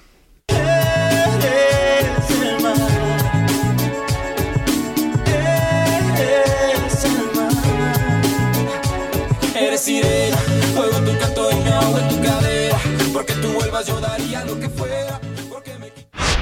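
A polished 2001 pop ballad by a Mexican-Argentine vocal duo plays loud and steady for about fifteen seconds, with a full band backing sustained melodic lines, then cuts off abruptly near the end.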